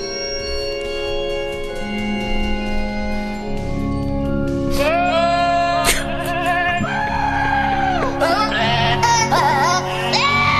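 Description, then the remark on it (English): Goats bleat in sustained, wavering cries edited into the carol "O Holy Night" over soft orchestral backing, the loud bleats rising and falling like a singing voice; a track from a Christmas album sung entirely by goats, created by the charitable organization ActionAid. “it is a Christmas album that is entirely sung by goats.”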